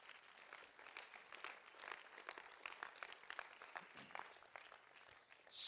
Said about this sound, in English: I think you ought to give the Lord a hand clap.